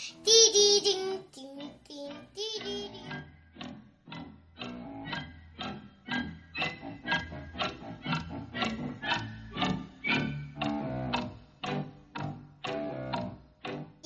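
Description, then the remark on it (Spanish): A voice imitates the ticking clock swallowed by the crocodile along with Captain Hook's hand in the Peter Pan story, producing a long, steady run of short tick-tock syllables at roughly two per second after a brief sung or drawn-out vocal opening, moderately loud throughout. “Se zampó también el... El reloj y por eso hacía...”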